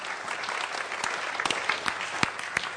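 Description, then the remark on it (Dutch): An audience applauds steadily, a dense wash of clapping with a few sharper individual claps standing out, moderately loud and without any talking over it. “Why don't we give one more hand to Laten we nog een applaus geven aan”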